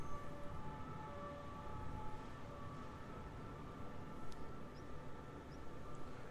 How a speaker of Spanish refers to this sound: ¿Oyes la sirena?